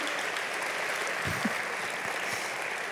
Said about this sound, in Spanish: Y bueno, dale un aplauso a Dios y le gracias es porque tú sigues tocando a la puerta de mi corazón.